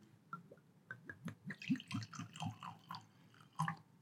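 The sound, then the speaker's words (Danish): A very pale fino sherry is poured into glasses: liquid trickles in an irregular stream with small glugs and drips, with a louder splash near the end and no voices. “Imens Peter hælder op, så kan jeg jo lige fortælle, at det er jo sådan en helt lys sherry”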